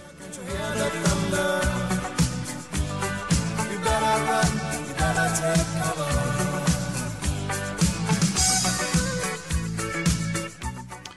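An upbeat 1980s pop rock song plays loudly and steadily, driven by a bouncing bass line and a regular drum beat, with full band instrumentation throughout.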